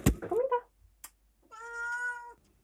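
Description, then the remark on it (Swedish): A small cat waiting to be let in meows twice: a short, rising mew at the start, then after a pause a longer, steady, drawn-out meow. A faint click sits between them, and no one speaks. “Jag ska bara släppa in min lilla, lilla katt som har suttit här och jamat.”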